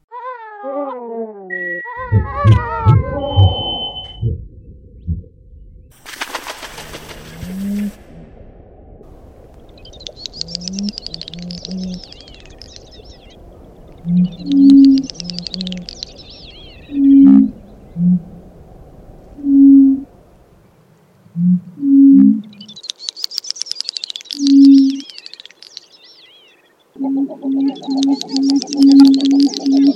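A bird calls in short bursts of high, rapid chirping phrases that recur every few seconds, over a steady background with repeated low, tonal pulses and a brief noisy rush near the start.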